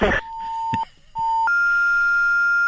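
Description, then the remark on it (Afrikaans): A fax-machine style tone over a phone line: a steady electronic beep, a short break, then another beep that steps up to a higher, continuous whine, loud and clear. “Klink soos 'n as jy gebel het na 'n fakslyn toe.”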